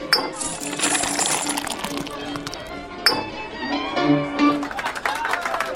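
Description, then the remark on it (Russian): Silver coins drop and clink again and again in quick, scattered bursts, fairly loud, as they are tossed from all sides into a musician's pockets, over a dense background murmur of voices. “Со всех сторон в карманы ему сыпались серебряные монеты”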